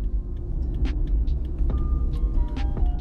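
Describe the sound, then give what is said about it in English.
Steady low engine rumble from inside a moving car driving in heavy traffic and about to turn left, with road noise and occasional higher swishes of passing traffic outside, continuous and fairly loud throughout. “Crazy traffic.”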